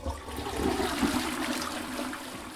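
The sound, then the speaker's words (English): A toilet flushes with a steady, rushing whoosh of water that fills the whole short stretch, fairly loud, with no voices. “to my mind, it's like the whoosh of the toilet as you flush is almost serves as a mind eraser.”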